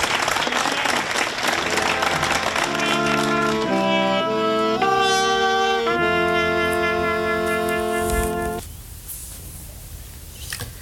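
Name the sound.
thunderous applause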